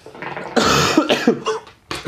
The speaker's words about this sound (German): Ich muss jetzt die ganze Zeit husten. Hat hm, nichts mit meiner Stimme zu tun.